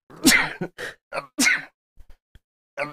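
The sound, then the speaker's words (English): Two loud sneezes burst out about a second apart, separated by short sharp breaths and sniffs, followed by a brief quiet stretch and a faint click. “Bless you.”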